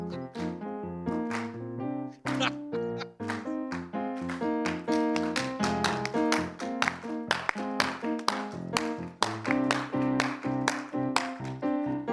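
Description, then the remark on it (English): A crowd claps steadily along to the beat of melodic music in a demonstration of how beats fall in music, the sharp, even claps landing in a regular rhythm over sustained tones throughout. “Just keep clapping, keep clapping.”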